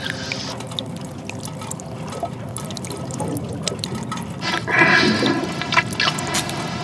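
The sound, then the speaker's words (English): Rising water, now up to a person's waist, pours and sloshes steadily in a continuous churning wash, with scattered drips and splashes, swelling louder near the end as the flow surges. “Uh, the uh, water's um, up to my waist now.”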